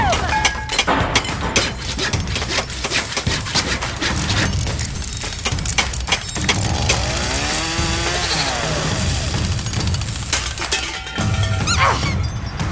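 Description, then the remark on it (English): Loud, busy racket of building an invention, a synesthesia machine: rapid hammer blows and metallic clanks mixed with the whine of power tools, continuing steadily for over ten seconds with a brief pause near the end. “Guy Raz, hammer time. Hammer time? I need the hammer.”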